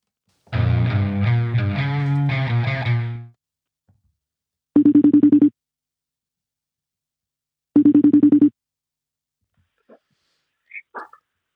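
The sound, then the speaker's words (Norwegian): A brief melodic electronic jingle, then two steady ringback tones of an outgoing phone call about three seconds apart, clear and even, followed by quiet pauses and a faint stir at the end. “vi tar og ringer Bjørn, da”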